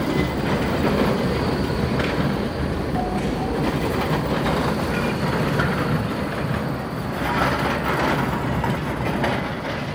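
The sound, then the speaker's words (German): A tram arrives quietly at a city square and crossing, rumbling with a steady, loud rolling roar and faint rail clatter, swelling slightly at times, blended into continuous city traffic noise with no voices. “Wir drei Klangspazierende sind so in die Töne und ins Gespräch vertieft, dass wir fast von einem Tram überfahren werden, dessen leise Ankunft im Getöse des Verkehrs untergegangen ist.”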